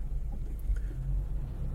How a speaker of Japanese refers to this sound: 結構ふわふわしたやつなんでこう揺れはするんですけどこれがどの程度そのねノイズの軽減になるのかっていうことをちょっと今日は検証したいと思ってその検証を兼ねて今ドライブ雑談をしております僕は郵便局に向かっております